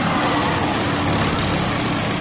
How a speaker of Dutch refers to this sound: Ja, dat klopt ja. Ja, het is inderdaad The Wall of Dead met een oude Indian.